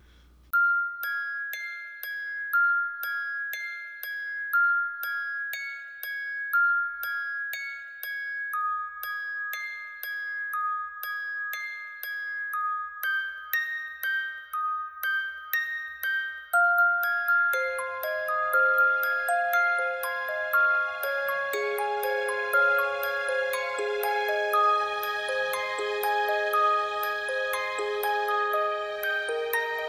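Bright, bell-like royalty-free instrumental music plays alone, a chiming melody of plucked or struck tones that grows fuller and denser partway through, staying steady and clear throughout.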